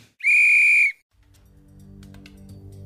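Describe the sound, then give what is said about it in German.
A single loud, steady whistle blast signalling the start of a quiz timer lasts about half a second, clear, then cuts off, leaving a low rumbling background that slowly builds. “Hier ist euer Timer.”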